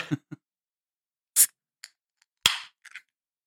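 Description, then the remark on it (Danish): A can of 14 percent barrel-aged Imperial Stout beer cracked open: a few sharp metallic clicks, then a crisp pop of the tab followed by a short hiss of escaping fizz. No one speaks. “Skal du ikke bare have lov til at lave noget lyd på det?”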